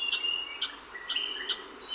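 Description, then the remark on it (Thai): Birds, such as the mangrove flycatcher, chirping in a mangrove forest as they sing to find mates: about five bright, high-pitched bursts at a steady pace, with thin whistling tones drawn out between them, fairly quiet and with no voices. “นกจับแมลงป่าโกงกลางนะครับ เรื่องแบบนี้เนี่ยมันก็ทำให้เราเนี่ยได้ยินเสียงนกเหล่านี้เพราะว่านกเหล่านี้เนี่ยมันต้องร้องเพลงเพื่อจับคู่ แล้วก็ทำรังวางไข่นะครับ”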